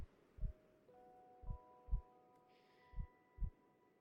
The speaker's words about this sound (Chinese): 接着，你发现你的心跳慢慢的变慢了下来。